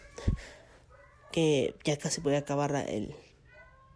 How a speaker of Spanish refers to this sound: Y ese es mi gato, sí.